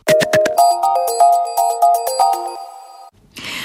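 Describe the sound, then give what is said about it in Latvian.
A sonified recording from outer space: a quick run of bright, bell-like electronic tones in a steady rhythm, then a sudden stop and a short burst of hissing noise. “Bet līdz tam ieklausīsimies ieklausīsimies kosmosā.”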